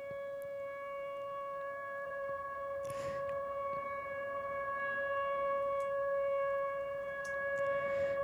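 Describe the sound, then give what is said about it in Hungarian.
Several factory sirens hold long, steady overlapping tones in a continuous droning chord, with brief noisy bursts breaking in now and then; the last two minutes of a 28-minute video of Arseny Avraamov's Symphony of Factory Sirens. No one speaks. “Avra Amov gyári szirének szimfóniájának utolsó két percét.”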